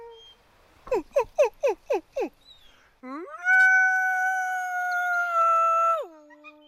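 Wolves howling: five quick, sharp yips in a row, then one long, steady howl that swells, holds for several seconds and drops away at the end. No talking.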